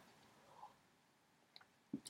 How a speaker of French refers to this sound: attention, une petite gorgée de café à nouveau.